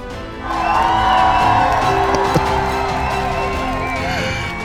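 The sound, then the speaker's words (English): A crowd cheers and claps steadily for several seconds as a show's permanent guest host is introduced, a dense roar of voices with whoops rising over a continuous wash of applause. “A round of applause for the most interesting man in the world”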